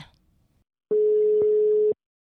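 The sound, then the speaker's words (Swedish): A single steady telephone ringback tone sounds for about one second, clear, after a brief faint rustle, while calling a running group's leader; no one speaks during it. “Så jag tycker vi passar på och ringer upp henne.”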